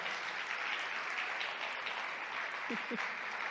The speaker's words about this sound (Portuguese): Eu creio que podemos dar um outro aplauso a Cristo por a vida desses jovens que temos, será?